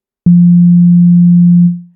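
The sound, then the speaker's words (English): A plain, pure basic sine wave from a synthesizer, with few harmonics, around low-mid pitch, starts abruptly with a slight click, holds steady and loud for over a second, then fades out smoothly, as a starting waveform for a kick drum sound. No voices. “So here's that basic sine wave.”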